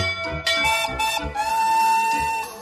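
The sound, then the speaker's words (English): A big blue fire engine's steady, shrill whistle sounds throughout, with several quick metallic bell clangs ringing over it in the first half. It is fairly loud, with no talking. “She has both a whistle and a bell, and they sound like this.”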